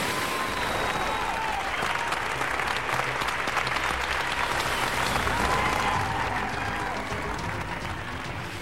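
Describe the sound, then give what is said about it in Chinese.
A crowd breaks into loud, sustained applause with cheering and whistles, a dense roar of clapping that holds steady from start to finish, with a few shrill whistles rising above it. “掌声和欢呼声都已经震耳欲聋了。”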